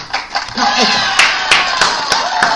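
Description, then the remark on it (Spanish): A burst of crowd applause played as a sound effect on a programme, dense steady clapping with a few sharper hand claps standing out and some cheering voices mixed in, loud and sustained for a couple of seconds. “Vamos a poner los aplausos, ya va, espérate.”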